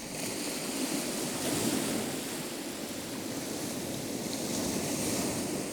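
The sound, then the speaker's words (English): Gentle waves lap steadily against a beach, a soft continuous wash of surf with subtle swells and no voices, sounding calm; a seascape recorded by Med Goodall for the Sounds of the Earth CD, The Sea. “We leave you this week with the sound of waves lapping gently on a beach.”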